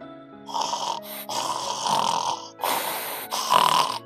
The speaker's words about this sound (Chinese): 小猪们挤在猪圈里打着呼噜。